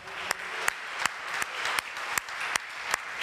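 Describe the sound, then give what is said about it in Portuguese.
A church audience applauds for Jesus during a service, a dense wash of clapping with sharper claps landing in a regular, even beat, fairly loud and continuous with no speech. “Dê uma salva de palmas para Jesus, aleluia.”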